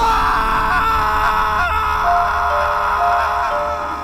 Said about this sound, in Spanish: El espectro de la niña se abalanzó sobre él, que gritó hasta quedar sin aliento.